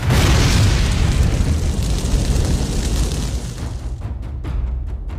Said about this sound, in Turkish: yeterli miktarda barut ve doğru zamanda yaşanacak büyük bir patlamayla bu mümkündü.